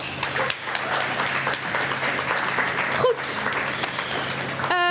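An audience applauds steadily for several seconds for two guests on a show, dense overlapping claps forming a loud, continuous wash of noise with no one speaking over it.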